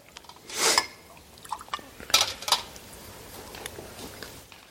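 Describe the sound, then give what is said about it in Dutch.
Water is poured into a glass in short splashing bursts, with light clinks of glass between pours, and no one speaks. “ik neem weer een water.”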